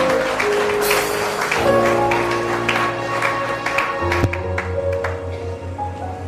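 A church audience claps steadily for several seconds to welcome the preacher's daughter near the close of a service, a dense patter of many hands at an even level, with a low droning hum and some steady tones running underneath.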